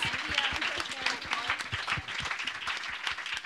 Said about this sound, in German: Vielen Dank. Applaus.